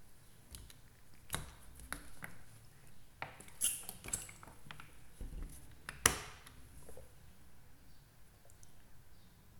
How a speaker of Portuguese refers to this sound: A mesma quantidade de areia só que aqui eu encharquei de água. Então, eu encharquei de água. O que, que vai acontecer? Na hora que eu jogar, ele vai se comportar como o quê? Essa areia encharcada de água.